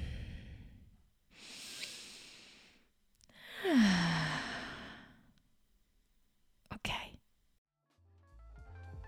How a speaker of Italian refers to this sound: Fai due respiri.